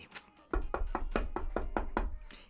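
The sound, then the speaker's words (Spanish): A rapid, steady series of about eight or nine hard, fairly loud knocks on a closed door, struck in an even rhythm with no one talking. “Y yo tocando la puerta. Y así.”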